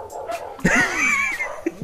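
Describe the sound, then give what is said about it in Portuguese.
Dogs yelp and bark in short bursts, with one drawn-out, high whimpering whine in the middle. The sounds are loud, and no one speaks. “Quem soltou os cachorros?”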